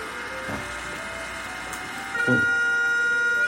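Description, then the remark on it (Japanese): A loud outdoor municipal music siren in Japan, one of only three such machines said to remain in the country, plays the evening melody "Yuyake Koyake" in tonal notes over ambient noise, then shifts to a sustained, steady high tone held for over a second with strong harmonics. “まあ、これがミュージックサイレンの音なんですけど。”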